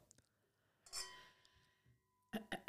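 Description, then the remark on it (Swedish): A single bright clink of glasses of sugar-free vodka Red Bull touching in a toast, its ringing tone fading over about a second, followed by a few short, breathy vocal bursts. “vi har fyllt på. Fyll på. Skål. Skål.”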